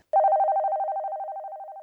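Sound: telephone ringing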